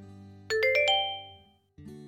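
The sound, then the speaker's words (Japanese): A smartphone message notification chime rings out as a message arrives: four quick, bright ascending notes that ring on and fade over about a second, heard clearly above a low, steady background hum. “そのタイミングで俺のスマホが震えた。”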